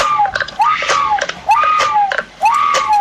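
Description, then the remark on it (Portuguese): An old toy with strings lets out a repeating shrill, scream-like wail, rising and falling in pitch about three times, with faint clicking underneath. No one speaks over it. “Isto é um dos brinquedos que eu é mais lindo. estimo e que a minha mãe também estimava.”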